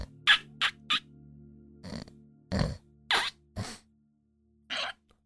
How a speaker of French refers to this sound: Oh là là, il ronfle comme mon chien.